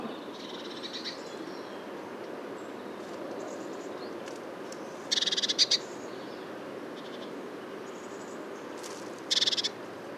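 A great tit gives short, sharp calls in two brief bursts, one midway and one near the end, with faint chips earlier, over a steady rushing background hiss.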